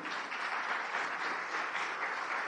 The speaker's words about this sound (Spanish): Denle un aplauso al Dios vivo.